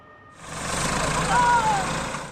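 A tractor engine on rough farmland in Kahramanmaraş, Turkey, kicks in after a brief quiet moment and runs steadily, a loud, rough mechanical roar with a thin whine rising briefly over it, as the tractor is pulled free with a rope by 13 people.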